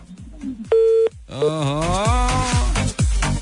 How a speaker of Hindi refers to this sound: telephone line में भी धुंध पड़ गई यार